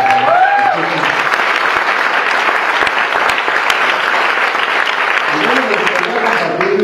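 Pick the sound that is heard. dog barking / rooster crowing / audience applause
audience applause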